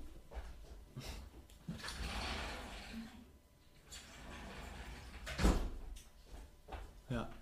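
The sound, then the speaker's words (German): A door is opened, with handle rattles and a sharp clunk about midway, plus scattered knocks and shuffling, and muffled voices faintly in the background. “Ich muss mal kurz die Tür aufmachen.”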